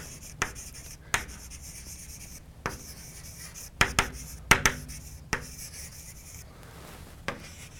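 Someone writes the math formula h = f ∘ g, the composition of functions f and g, on a board: a string of irregular sharp taps and short scratchy strokes, some in quick pairs, over a faint steady hiss with no one speaking.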